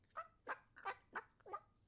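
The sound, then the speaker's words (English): Several chickens, just disturbed, squawk angrily in agitated, clucking bursts, about five sharp calls in quick succession, moderately loud, with no talking. “They squawk angrily.”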